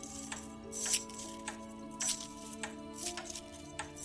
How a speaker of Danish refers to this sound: Nemlig en lyd af raslende nøgler. Det lød, som om lyden kom tættere og tættere på.